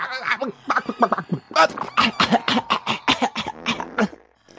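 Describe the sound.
A voice acts out a fit of harsh coughing, rasping gasps and wheezy breaths, a fast run of loud bursts that tapers off into quiet at the end.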